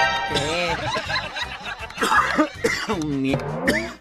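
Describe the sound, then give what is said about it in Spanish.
A series of loud coughs mixed with snickering, voiced laughter, rough bursts running together for a few seconds with no clear words spoken. “ah, con tos y todo.”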